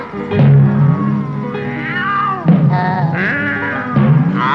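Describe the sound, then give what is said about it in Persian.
A cat meows loudly in a series of drawn-out, wavering cries, about four calls in quick succession with rising and falling pitch, with no talking. “این نه که گربه دشمن جون”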